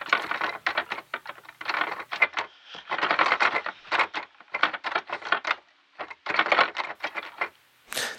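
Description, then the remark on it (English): Someone struggles to open a plastic CD case, producing irregular bursts of clicking, snapping and rattling over several seconds, with short pauses between attempts and no talking. “That's just me trying to open the case.”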